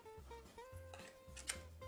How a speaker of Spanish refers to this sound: Vamos a poner acá la batería. Fíjense que viene unos dientecitos y esto viene con una parte de dorada, usted la pone ahí. Hasta que haga clic, igual que otras veces, ¿ya?